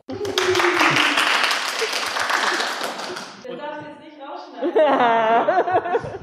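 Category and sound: crowd, clapping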